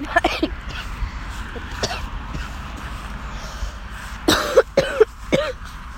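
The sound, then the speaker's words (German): A person with a slight cold coughs and clears their throat, with a few scattered rasps early on and a tight cluster of harsh coughs toward the end, no talking in between. “ja, ich bin ein Mensch, ich kann husten.”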